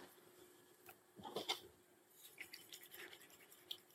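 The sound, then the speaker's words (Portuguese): Shoe-cleaning solution of detergent and water being shaken up into foam, with brisk, uneven bursts of swishing and scrubbing, a busier cluster in the middle and lighter agitation toward the end. “Damos sempre aqui um tipo uma choca-choca, porque a gente trabalha com a espuma, não com a água.”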